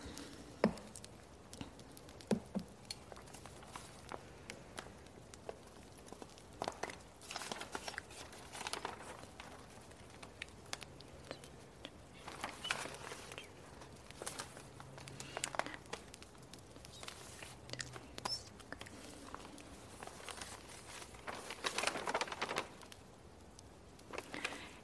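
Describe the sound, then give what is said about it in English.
Paper pages rustle and crinkle steadily for the whole stretch, with irregular soft bursts of shuffling and flipping, fairly quiet, and no one talking, as someone browses through paper guides by a fire at night. “So let's browse through this paper.”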